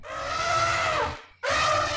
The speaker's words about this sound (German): Oh, hört mal. Wie toll! Lasst uns mit unserem Safari anfangen. Oh, wen höre ich da? Das ist der Löwe.